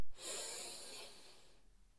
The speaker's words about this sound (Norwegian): Og vi gjør det en gang til. Pust godt inn.